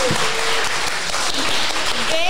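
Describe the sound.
A room full of people applauds, a dense, steady wash of clapping hands throughout, fairly loud and close, with faint voices mixed into the noise.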